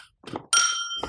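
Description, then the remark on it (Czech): Glasses clink together in a toast to a better future for Russia, the Russian nation and Europe: a bright, high ring that hangs in the air and slowly fades, preceded by a brief soft knock or rustle, with no talking. “Tak si ještě připíme na lepší budoucnost Ruska, ruského národa, i nás a Evropy a budeme doufat, že až se to bude měnit, tak opravdové umění nebude trpět.”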